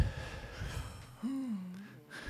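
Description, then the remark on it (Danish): A deep breath drawn in to fill the lungs, airy and audible, followed by a short voiced exhale with a faint hum-like tone. “Det er også sjældent, hvor tit i løbet af en dag, fylder man egentlig ens lunger med luft.”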